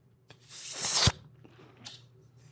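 A person imitates slurping spaghetti: a long, hissy slurp swells in loudness and ends in a sharp, low smack, followed by a few faint mouth clicks and quiet lip sounds.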